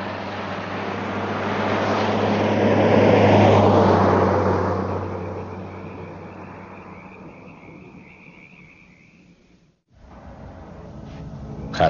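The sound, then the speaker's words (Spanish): A car engine roars and revs hard as Joey accelerates, closely pursued by another car on a completely dark road, swelling to a loud peak before easing off and cutting out abruptly, then a lower engine rumble picks up again. “Joey acelera. El coche les persigue de cerca.”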